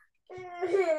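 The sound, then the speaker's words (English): A baby's voice rises from quiet into a loud, wavering cry mixed with babbling, high and strained with strong harmonic tones, lasting under a second after a brief silence. “i know you could hear it in the background um but that's real life in the background yeah.”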